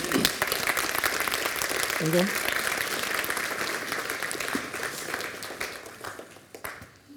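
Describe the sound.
Sustained audience applause, a dense steady patter of many hands clapping that fades gradually toward the end, with a brief voice heard early on.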